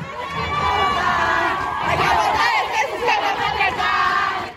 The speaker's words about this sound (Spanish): Las mujeres volvimos a gritar un 8 de marzo, en el Día Internacional de la Mujer, con la exigencia de ser escuchadas, respetadas y visibles ante los ojos de todos.